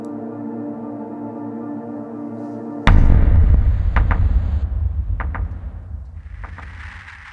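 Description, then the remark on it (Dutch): A steady humming drone gives way to a single heavy hammer blow on metal armor, the hammer raised above a helmet with gloved hands and swung down, loud, followed by a rumbling decay and a few light metallic taps. “Snakkend naar adem ontlading, één luchthap, hef ik mijn hamer met gehandschoende handen tot boven mijn helm, zwaai ik door en laat landen.”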